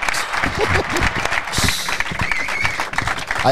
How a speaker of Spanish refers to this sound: Estos no, estos no, son puestos, ¿eh? son reales los aplausos.